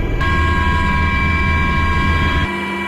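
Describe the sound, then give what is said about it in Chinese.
Several types of military helicopters, including Z-19 and Z-20, take off one after another at 1 p.m. for field landing training: a loud, steady turbine whine with a sustained high tone over a broad engine roar, the low rumble dropping away just before the end. No one speaks. “下午一点，直十九、直二零等多型直升机依次起飞升空，奔赴各自目标空域，展开直升机野外场地起降训练。”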